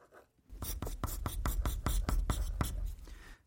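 A pen scratches quickly across paper, writing out the letters of a word, in a steady run of about a dozen short, crisp strokes, with no voices.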